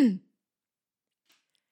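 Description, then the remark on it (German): A voice imitates a brother's habitual throat clearing done for no reason: a single short, gruff throat clearing, fairly loud, followed by near silence with only a faint small click afterward. “räuspert sich einfach ohne Grund.”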